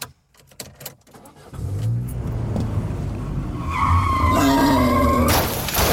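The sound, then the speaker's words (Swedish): A Volvo V70 car collides with a wild boar: an engine rumble builds steadily, then tires screech and skid loudly before a brief harsh burst near the end, with no voices. “Okej, vilket djur, nu startar vi Volvo V70, vilket djur blir påkört här?”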